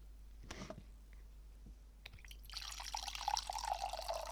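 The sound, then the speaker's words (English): A drink is refilled, liquid poured into a glass for a couple of seconds, a soft, steady splashing stream after a few faint clicks and knocks, recorded quietly. “I'm gonna refill, but I'm gonna point the mic towards the refill.”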